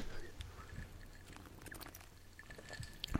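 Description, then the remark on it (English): Crunchy chewing of a hard Tums antacid tablet: irregular crackling bites and grinding for a few seconds, with no talking. “I had to take a Tums break.”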